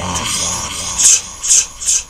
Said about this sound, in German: So, und dafür habe ich jetzt das Insert, das Zwiespalt-Insert.